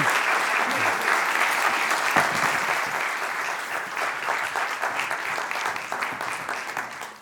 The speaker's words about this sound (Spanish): aquí pido un aplauso para él.